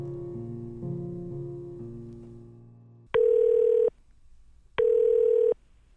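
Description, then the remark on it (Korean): A soft fading melody gives way to the telephone tone of an outgoing call to a senior acquaintance, placed during the late-night song-request segment '한밤의 신청곡', in which an acquaintance is phoned for a song request: two loud, steady beeps, each under a second long, separated by a short pause of near silence. “저는 오늘 앞서 말씀드린 선배에게 전화를 해볼까 합니다.”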